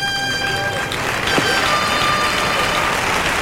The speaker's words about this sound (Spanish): Fuerte ovación para el picador